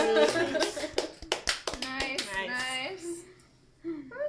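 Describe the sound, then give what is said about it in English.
A handful of sharp, loud hand claps land in an uneven burst, interleaved with animated voices talking and laughing over them before things quiet down. “Claps.”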